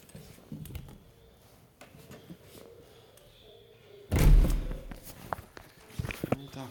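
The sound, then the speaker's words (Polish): Soft footsteps shuffle along, then a door is pushed open with a loud rattling burst and swings shut, followed by a couple of light knocks and thumps. “Wejdę sobie jeszcze w drzwi.”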